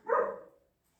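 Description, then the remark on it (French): A single dog bark rings out, a short, full-bodied woof that fades quickly into silence, with no talking. “encore le chien.”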